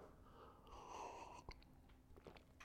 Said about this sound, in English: Take a quick sip of some delicious water.